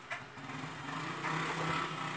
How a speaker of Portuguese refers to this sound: Uma moto aqui passando, peraí.